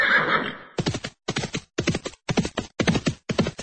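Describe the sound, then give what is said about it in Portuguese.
A horse lets out a short, breathy whinny, followed by a steady run of six loud hoof clops in an even trotting rhythm. “O vosso cavalo, senhor Aguá.”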